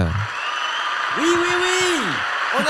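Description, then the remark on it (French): A stadium crowd at Bourg-en-Bresse claps in a short, steady burst of applause, with a single voice letting out a rising and falling whoop in the middle before the clapping continues. “Ils applaudissent, mais de manière courte.”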